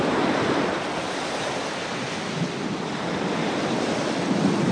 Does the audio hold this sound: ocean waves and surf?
yes